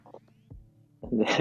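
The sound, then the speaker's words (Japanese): A person mimics a cat's meow with a short, strained, nasal cry that swells louder toward the end, preceded by a few soft vocal murmurs. “で、あの、塾で、塾の小部屋で数人でやる授業の時に、うん、猫、猫の声真似したら、みんな静かにとか誰かが言って、猫がいるよとか言って、すごい、まあまと騙されてて面白かったです。”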